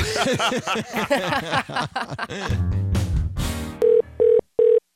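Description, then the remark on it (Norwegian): A telephone rings in the Radio Norge studio with three short, evenly spaced electronic tones near the end, following a stretch of laughter and a burst of noise. “hvem i all verden er det som eh, ringer oss?”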